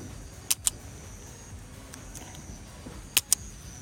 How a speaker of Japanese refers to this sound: この音今カチカチっていう音がしたと思うんですけれどもこれはあのボールペンのノック音ですねボールペンなどのノック音もワンちゃんにとってクリッカーと同じ効果をもたらすことができます